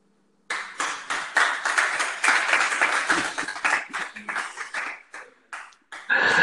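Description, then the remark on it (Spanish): An audience breaks into applause for a stand-up comedy monologue after a brief silence, a dense, steady patter of many hands clapping that stays fairly loud until the end, with faint voices mixed in. “Muchas gracias. los aplausos.”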